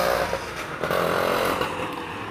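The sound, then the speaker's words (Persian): A motorbike passes in an alley, its engine a loud, steady buzzing drone with a rough, throaty edge that holds for a couple of seconds. No one speaks. “ببخشید از توی کوچه از این تک رد میشه من صدامو قطع میکنم”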